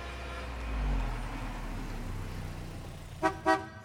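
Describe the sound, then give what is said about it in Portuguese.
A car engine rumbles with low traffic noise as the car pulls up and stops at the roadside at 10 p.m. on 24 December, then two short, loud horn honks sound in quick succession near the end. “Ao chegarem à beira da estrada, de repente um carro para em frente a eles.”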